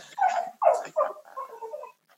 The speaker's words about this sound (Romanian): Hai că, hai că vrea și câinele la afară. Vrea și câinele afară.